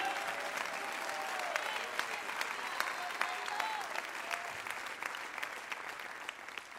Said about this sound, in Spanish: Dale fuerte ese aplauso al rey.